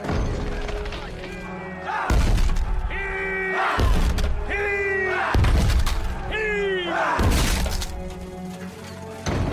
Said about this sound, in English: This is your city Stannis means to sack. That's your gate he's ramming. If he gets in, it will be your houses he burns.